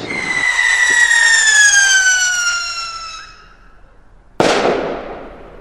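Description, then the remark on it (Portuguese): A loud firework sound effect, a 'rasga-lata' firecracker, whistles with a long, shrill tone that slowly drops in pitch for about three seconds, then a sudden sharp bang bursts into a fading crackle. No one speaks. “Nossa, bota o rasga-lata aí.”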